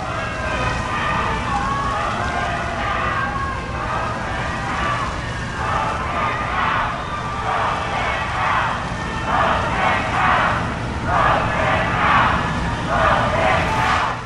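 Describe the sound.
A large crowd boos Donald Trump, present masked with Melania Trump, and shouts "Vote him out", the noise turning into loud, rhythmic bursts of collective yelling in the second half, with many overlapping voices throughout.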